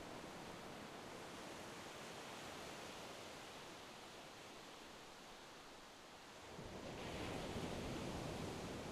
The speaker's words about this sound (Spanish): Escucha ahora el sonido de las olas, cómo llegan desde lejos a parar a la orilla de la playa. Esas suaves olas que te llevan acompañando un rato y que rompen a unos metros de ti. Escucha su sonido y relájate.